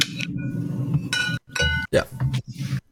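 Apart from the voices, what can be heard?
wine bottle being opened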